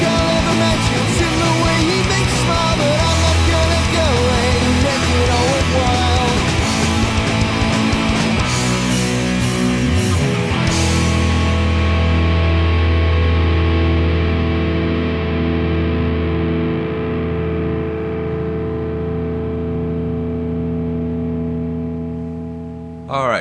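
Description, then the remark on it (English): A loud, distorted rock song reaches its finish, the full band crashing into a final chord that rings out for several seconds and slowly fades. “We just had to let the song play out.”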